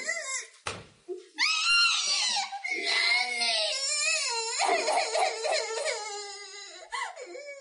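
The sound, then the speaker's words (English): A baby wails loudly and continuously, with high, strained cries that rise and waver in long bursts and a brief pause near the start, alone. “You will immediately identify yourself and that infant now.”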